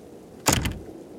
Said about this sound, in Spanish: Después dijo algunas maldiciones al aire y azotó la puerta.